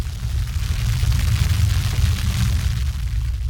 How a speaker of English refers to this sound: You hear that? That's the sound of your roots growing where they've never gone before.